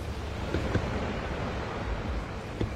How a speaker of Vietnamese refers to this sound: Gió bắt đầu thổi phần phật Khi thuyền tiến vào địa phận sông Mang hai bên là hai ngọn núi sừng sững sương bắt đầu dâng lên